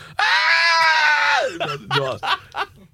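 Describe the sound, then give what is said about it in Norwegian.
A person lets out a long, loud, high-pitched scream imitating a trout screaming in pain, held for over a second before breaking into a few short, strained wails and laughing gasps. “Hvis ørreten lagde lyd av smerte?”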